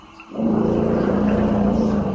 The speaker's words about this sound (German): Ich habe eine Aufnahme gefunden, mhm. wo man das so ein bisschen hören kann, wie sich Elefanten auf den tiefen Frequenzen unterhalten.